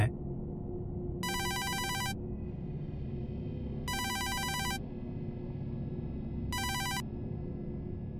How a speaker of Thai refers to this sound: หลังจากฟังเสียงรอสายอยู่พักใหญ่ หัวหน้าของผมก็กดรับสาย